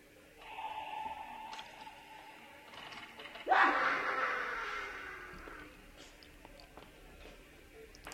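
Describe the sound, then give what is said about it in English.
An eerie insane asylum Halloween sound effect played by Alexa: a sustained droning tone, then a sudden loud burst around the middle, with scattered ticking and faint laughter-like sounds fading toward the end. “Ask Halloween sounds for kids to play random. Insane asylum.”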